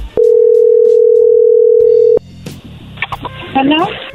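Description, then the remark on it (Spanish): A loud, steady telephone dial tone hums for about two seconds and cuts off abruptly as a call is dialed for the second time, followed by quieter line clicks and a jumble of voices and tones as the call connects. “vamos a marcarle por segunda vez aquí a”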